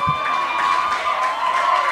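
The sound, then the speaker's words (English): A dense crowd of mostly women in Montreal roars continuously, high-pitched screams and cheers blending into a loud, steady wash of noise with no pauses across the whole moment. “There are so many women screaming.”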